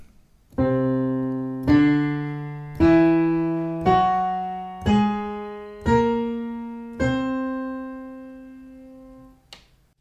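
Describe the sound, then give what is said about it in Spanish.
Six piano notes climb a whole-tone scale (C, D, E, F sharp, G sharp, B flat) one at a time at a steady, unhurried pace. Each note rings and decays before the next, and the final note is held longer. No voices are heard. “Así que la escala de tonos enteros suena así.”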